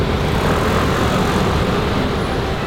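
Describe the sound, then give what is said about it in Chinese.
A steady, dense roar of many motor scooters streaming across Taipei Bridge in Taipei during commuter rush hour, a continuous loud engine drone with no pauses and no voices. “上下班的台北桥，机车瀑布。”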